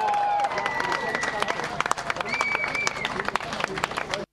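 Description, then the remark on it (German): Loud applause from a crowd of protesters as the green facade of the Deutsche Bank is torn down, dense irregular clapping with scattered whistles and cheers over a steady babble of voices, sustained throughout before cutting off abruptly. “Unter lautem Beifall wird die grüne Fassade der Deutschen Bank heruntergerissen.”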